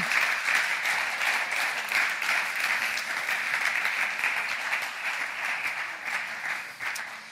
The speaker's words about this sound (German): Hier vor Ort. Lass uns doch mal dieser Band einen Riesenapplaus geben und den Technikern.